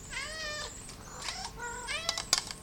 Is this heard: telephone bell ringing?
no